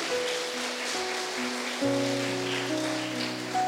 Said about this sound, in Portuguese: Dê uma forte salva de palmas ao Senhor.